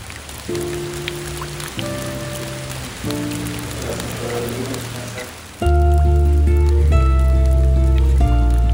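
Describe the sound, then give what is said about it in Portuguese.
Steady heavy rain in Belém, where it falls constantly in the first half of the year, hisses throughout, mixed with sustained musical tones that grow louder and deeper about two-thirds of the way in; no one speaks. “Esse barulho é a chuva que cai constantemente nesse primeiro semestre por lá.”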